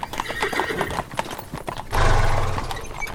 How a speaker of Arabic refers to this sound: ومن أهمها الخيل العربي وكان يهتم دايما فيهم ويسعى في تربيتهم وكل يوم يطلعهم في الرواق عشان يركضون في المزرعة بكل حرية